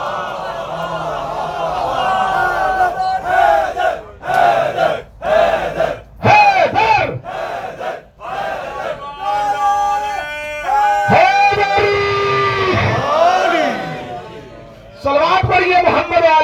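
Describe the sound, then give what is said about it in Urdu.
A large crowd chants a salawat together in loud unison, many voices rising and falling in long sustained phrases, with brief pauses between bursts before the chant swells again near the end. “چند بندوں نے سلوات نہیں پڑھی پڑھ لیں پھر بھی ایک سلوات”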